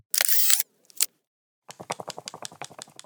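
An instant camera fires with a sharp mechanical snap and a brief click, then its motor whirs with a rapid, rattling buzz as the film is pushed out, steady for over a second.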